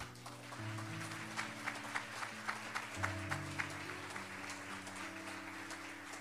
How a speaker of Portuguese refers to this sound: Quantos podem dizer amém por isso? Dê um aplauso ao Senhor, por favor.